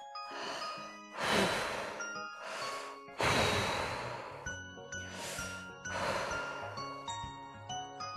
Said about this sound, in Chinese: 我又听到很重的呼吸声。